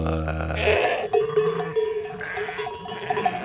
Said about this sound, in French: on y entend des troupeaux